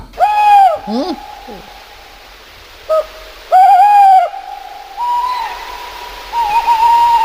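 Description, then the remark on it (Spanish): An owl, a nocturnal bird of prey, calls in a series of drawn-out, tonal hoots with a wavering, whistle-like quality, coming in repeated bursts. A second, slightly higher call joins toward the end. “Estamos caminando por un bosque de toda España, porque es muy ubicua este, este, este ave nocturna, esta rapa nocturna, pero y de repente escuchamos este sonido.”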